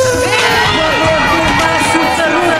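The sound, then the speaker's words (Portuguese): A loud, dense burst of crowd cheering and excited shouting runs through a short show jingle, the noise staying steady for a few seconds. “Solta a Vinheta aí”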